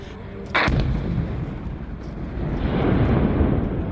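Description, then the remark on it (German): A sudden, loud explosion from drones striking a Ukrainian river port on the Danube bursts out after a brief pause, followed by a heavy, continuous rumbling roar that swells slightly and carries on to the end, with no voices. Heard from a ship about 500 metres away; the explosion raised a huge smoke cloud. “Der 19-jährige Viorel hat die riesige Rauchwolke der Explosion gefilmt.”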